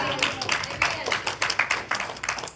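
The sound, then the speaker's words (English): A church audience claps steadily in praise of God, many overlapping hand claps forming a dense, lively patter of applause that stays even throughout. “Or shout and give God a good hand clap and praise and say hallelujah if you will.”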